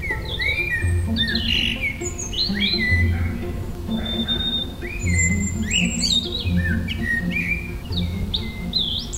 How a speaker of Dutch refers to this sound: Ja, het zijn twee geliefde zangers, hè? de Merel en de Roodborst. merel zit daar heel hoog in die spar. En ergens in de buurt eh, bevindt zich daar die roodborst met zijn heel waterige, ijle zang.